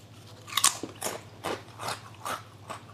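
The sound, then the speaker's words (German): Crunching of crispy sturgeon skin chips, a series of about six sharp, bright crackly bites spaced roughly half a second apart, with no talking over them. “Das sind Störchips. Genau. Aus der Haut ist, des Störs, gell?”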